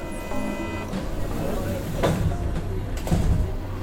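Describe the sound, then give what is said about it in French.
Steady rumble and hum inside a moving Paris metro carriage in April 2023, with rattling surges and brief clunks, and faint indistinct voices murmuring under the continuous noise. “avril 2023 dans le métro parisien.”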